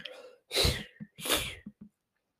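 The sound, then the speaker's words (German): Two loud, hissing bursts of air forced through the mouth, each followed by short tongue clicks: an attempted beatbox sound made by pressing the tongue to the palate and blowing air out as if blowing out a candle. “das presst ihr an den Gaumen. Und dann einfach so wie eine Kerze aus Pusten Luft durch die Lungen.”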